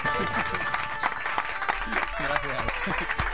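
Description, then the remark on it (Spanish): An audience claps steadily for a few seconds to welcome a guest writer, speaker and coach, a dense patter of many hands at a fairly even loudness, with murmuring voices and some talk mixed in beneath the clapping. “Recibamos con un fuerte aplauso al escritor, conferenciante y coach, y también crudo y vegano,”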